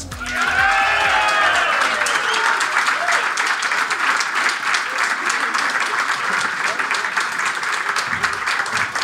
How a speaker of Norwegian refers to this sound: Stående applaus her. Det var koselig, det.